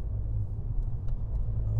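Steady low engine rumble from inside a moving car, a constant deep drone with road hum filling the background and no voices.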